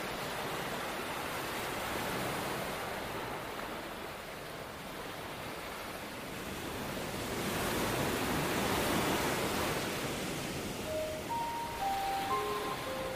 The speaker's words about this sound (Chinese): 您听出来这是什么声音了吗？嗯，很棒，没错，这就是浪花的声音。